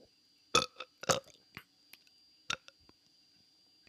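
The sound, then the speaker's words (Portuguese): A small, soft burp comes out in a couple of short, gurgly bursts, followed by faint clicky mouth noises in otherwise quiet with no talking. “Arrotinho, arrotinho.”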